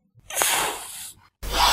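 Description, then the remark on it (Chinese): A cat hisses a warning in two bursts: a long, breathy, noisy hiss of about a second, a brief pause, then a second sharp hiss starts. Loud, airy and high-pitched, with no talking. “我们来听那个嘶嘶的声音好了”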